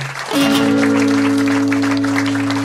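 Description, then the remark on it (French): A bar audience at the Blues Café claps loudly and steadily for a performer on stage, a dense crackle of many hands, while a sustained low musical chord hums underneath throughout. “on l'applaudit très très fort et ça nous fait très très plaisir de l'accueillir.”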